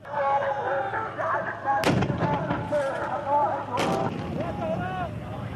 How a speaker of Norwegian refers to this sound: Vi hører bombekastere avfyrt av Al-Hashad al-Shabi, eller Popular Mobilization Forces.